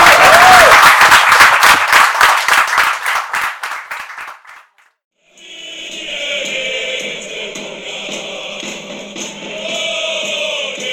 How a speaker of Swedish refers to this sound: En stor applåd